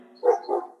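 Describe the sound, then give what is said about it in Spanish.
Two quick barks from household dogs in close succession, moderately loud, with no one talking over them and brief quiet on either side. “Disculpa los perros que tengo ahí”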